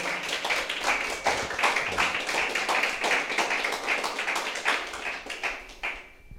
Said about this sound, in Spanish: Amén, mis amados. Vamos a darle fuerte los aplausos a nuestro Dios.